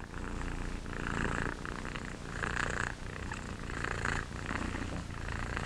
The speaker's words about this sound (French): Je viens donc à discuter cette production par contraction musculaire active qui a lieu lors du ronronnement du chat et d'autres effets là.